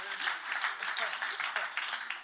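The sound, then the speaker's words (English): A room full of people claps steadily, a dense wash of overlapping hand claps at moderate volume that holds evenly for a couple of seconds without any voices over it. “So let's give him a round of applause as well.”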